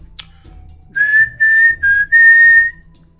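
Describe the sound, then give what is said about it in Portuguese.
A person whistles a thin, high, steady tone in four short bursts, the last held longest, imitating the eerie whistle of the Saci; fairly loud with a faint click before it. “Isso é tipo um assobio de saci. Só que bem fino, né?”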